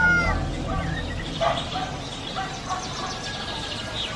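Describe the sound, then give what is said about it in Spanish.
A rooster crows shrilly and at length at dawn, its harsh call ringing out nearby over a busy background of other fowl noises, with no one talking. “un gallo de las proximidades rasgó el silencio del alba con un canto largo y estridente.”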